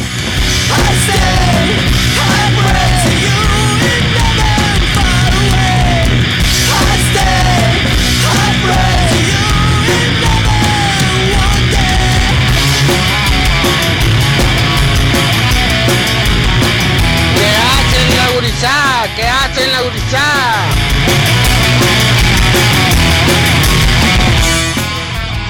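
A loud, dense heavy metal cover of a song, with distorted guitars and pounding drums filling the whole clip, and shouted, yelling vocals bending up and down over the wall of sound.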